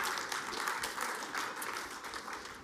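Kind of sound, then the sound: crowd, audience applause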